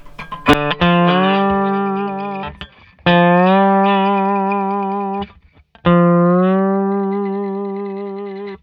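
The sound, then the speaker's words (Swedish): An electric guitar, fitted with a jazz string and a hard-rock string, strikes three ringing chords, a few seconds apart, each picked with a scratchy attack and left to sustain and slowly fade, with no talking. “Det var alltså då den alltså jazzsträngen och ja. hårdrocksträngen”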